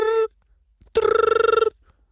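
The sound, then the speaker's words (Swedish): A voice imitates a woman's mobile phone alarm ringing in the morning: a short buzzy tone, a brief pause, then a longer rapid rolling trill that stops abruptly. “Morgonen efter, hennes larm ringer.”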